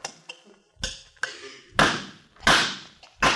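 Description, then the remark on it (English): A hammer strikes a large, heavy nail into wood six or seven times at an uneven pace, each blow a sharp knock with a brief ringing tail, the later hits growing louder and heavier. “please, please, please, stop being funny and hand me a heavier nail.”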